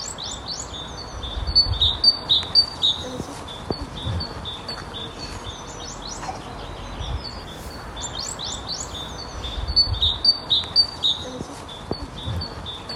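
A great tit sings in two bursts of quick, repeated high-pitched notes in a steady see-saw rhythm, with a pause between them and a low rumbling background underneath.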